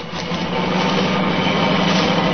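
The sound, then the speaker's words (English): A car engine roars steadily as the car travels too fast at night, its broad rumbling noise holding strong and swelling slightly louder over a couple of seconds, with no voices. “Stop that car! Pull over there!”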